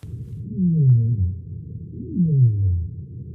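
Two low, descending sei whale calls sweep downward in pitch, each lasting about a second, separated by a short pause, heard clearly underwater against a faint low rumble.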